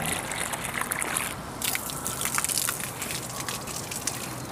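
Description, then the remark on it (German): Water pours and splashes steadily from a children's watering can into bowls, a continuous wet gushing with brief sloshing bursts as it fills them, with no voices. “Man gießt Wasser in Näpfe.”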